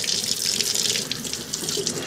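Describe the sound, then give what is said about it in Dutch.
A kitchen tap runs steadily, a continuous bright hiss of cold water splashing over squid being cleaned in the sink, with no voices. “Koud water, het trekt daar de tentakels uit.”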